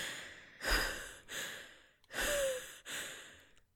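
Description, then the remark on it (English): A voice imitates heavy, wet breathing up close: four loud, breathy in-and-out gasps in a slow rhythm, each noisy and moist-sounding, with short pauses between them. “And breathing heavily and wetly in your ear.”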